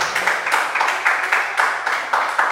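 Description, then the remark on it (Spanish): An audience applauding for God, a dense wash of many hands clapping with a steady, pulsing rhythm that swells every fraction of a second, fairly loud and with no voices over it. “Dale un aplauso a Dios, familia.”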